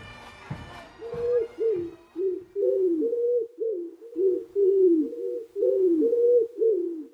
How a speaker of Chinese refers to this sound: 小鸠飞往市中心的广场，那里有很多鸽子在嬉戏。